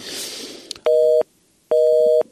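Two loud, steady electronic tone bursts of a telephone busy signal, evenly spaced with a short gap between them, following a brief patch of faint noise.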